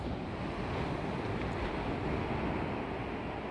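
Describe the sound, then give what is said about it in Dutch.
Steady ocean surf rumbles continuously with a light breeze rushing across it, a broad, even wash of ocean waves with no distinct breaks or voices. “En ik hoop ook vooral dat de golven een extra dimensie geven aan deze podcast en dat je mee kunt genieten van het geluid van de oceaan op de achtergrond.”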